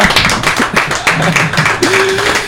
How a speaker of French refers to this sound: On peut applaudir